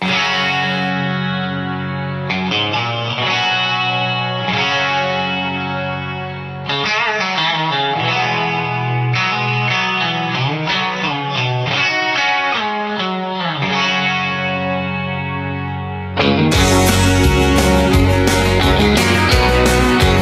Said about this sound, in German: aber trotzdem hören wir von diesem Soundtrack, äh, dem einzigen Country-Soundtrack, den ich habe, einen Song.